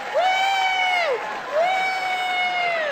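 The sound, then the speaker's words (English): Two long, loud, high-pitched whoops of cheering from audience members aged 40 or younger, asked to applaud, rise and slowly fall, one after another, over a faint crowd hubbub with little sign of distinct clapping. “How many people here by applause are 40 or younger? 40 or younger, applaud.”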